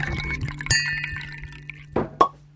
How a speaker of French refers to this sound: Voilà, ça, quand il annonce son arrivée, c'est en général avec un bruit de bouchon.